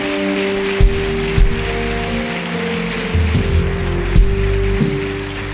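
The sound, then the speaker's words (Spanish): A crowd claps steadily for several seconds, a dense even patter of applause over sustained low musical tones, with a few soft thumps punctuating it. “Si lo crees, dale un aplauso. Dáselo fuerte.”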